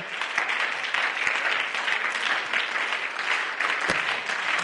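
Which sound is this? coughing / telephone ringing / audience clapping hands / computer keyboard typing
audience clapping hands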